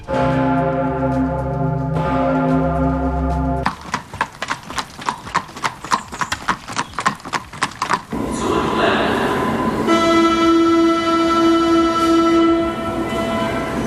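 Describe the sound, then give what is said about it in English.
A deep cathedral bell, the Pummerin, hums and rings out for a few seconds, followed by the brisk hooves of a Fiaker horse-drawn carriage clopping, then a loud Berlin U-Bahn subway train rumbling and whining through a station. “Die Boomerin, ein Fiaker, die Berliner U-Bahn und äh, typischer Berlin-Sound, auch Baustellen.”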